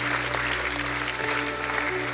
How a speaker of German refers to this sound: Herzlich willkommen in die Familie Gottes. Komm, lass uns ihnen noch mal einen ganz warmen Applaus geben.